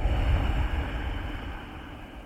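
A single long, hissing breath pushed out through the nose with the mouth closed and a tightened throat, as if fogging a mirror, in a breathing exercise using the throat lock (Jalandhara Bandha), steady at first then slowly fading, with no talking.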